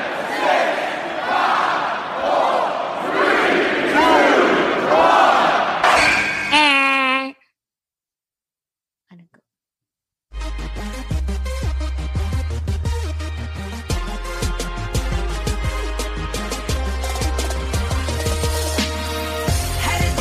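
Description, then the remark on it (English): A roaring, chanting crowd gives way to a few seconds of silence, then Sasha Banks's loud entrance theme song kicks in with heavy thumping bass beats and bright layered melody. “So the song you heard there is, of course, the theme song for Sasha Banks.”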